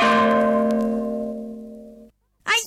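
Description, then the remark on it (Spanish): A bell is struck once and rings out clearly, its tone slowly fading over about two seconds, followed by a short silence and a brief new knock at the end. “Ya se me escapó una campana.”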